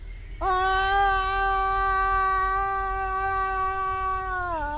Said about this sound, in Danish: Og jeg elsker, når foråret rigtig er på vej og kravle op i træet og skrige mit forskrig.